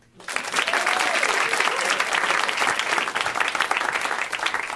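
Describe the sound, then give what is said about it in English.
An audience bursts into loud, sustained applause, a dense wash of many hands clapping that starts abruptly and holds steady for several seconds, with faint cheering mixed in, in answer to a performer asking who wants the ultimate comeback in their life tonight. “by round of applause, who here wants the ultimate comeback in their life tonight?”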